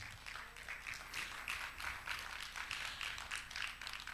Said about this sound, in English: If you are ready for a miracle in this house today, do me a favor and clap your hands.